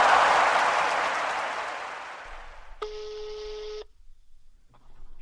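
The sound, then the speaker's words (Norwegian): A fading wash of noise gives way to a single steady electronic tone from a mobile phone being dialed, lasting about a second, clear and fairly loud, followed by near silence with no one speaking. “Kan, kan jeg bare ringe med mobilen og holde høyttaleren inntil?”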